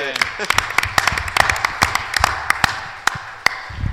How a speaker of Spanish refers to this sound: Gracias a la persona que no sabe ninguna de las dos cosas y le da igual y está aquí. O sea, aplauso, por favor, porque